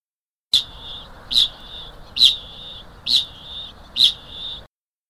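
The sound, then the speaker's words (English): A male parrot gives a high, metallic 'ching' mating call five times in a steady rhythm to attract females, each note a sharp onset followed by a sustained ringing tone, clear with no talking. “So there's the ching. This is sex radar. This totally exactly different sound, same bird.”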